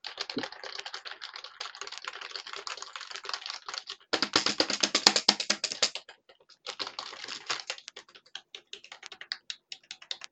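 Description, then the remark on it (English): Rapid, clattering keystrokes on a computer keyboard, fairly loud, with a denser burst of typing in the middle and brief pauses between flurries; no voices. “Now, one of the things that I hate is these type of keyboards. So like this.”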